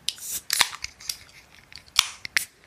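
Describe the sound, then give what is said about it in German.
A can of 4.7% session IPA beer, hopped with Amarillo, Mosaic and Simcoe, is cracked open: a few sharp metallic clicks and snaps with a brief fizzy hiss, no voices. “Jungs, lasst knallen.”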